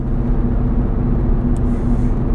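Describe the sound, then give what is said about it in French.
Loud, steady road rumble inside a moving car, a dense low drone with a faint rattle from the front right suspension, noisy since the car was shaken about at a vehicle technical inspection; continuous for the whole stretch with no one talking. “Si vous entendez beaucoup de bruit dans ma voiture, c'est parce que je l'ai emmené au contrôle technique l'autre jour.”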